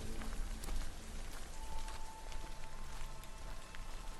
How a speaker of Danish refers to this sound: Ude på parkeringspladsen ser han hele festen stå i silende regn.